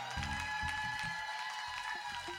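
An audience at the Nuits d'Afrique applauds and cheers for a music group in a steady, dense wash of clapping, with low rumbling crowd noise and a few sustained tones ringing through throughout.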